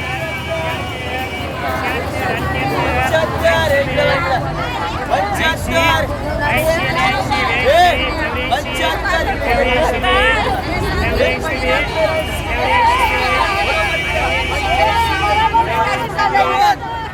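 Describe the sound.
A busy street market crowd in Tehran, Iran, fills the air with dense, overlapping chatter of locals, many voices blending into a steady, loud hubbub that never lets up, with a faint undercurrent of traffic.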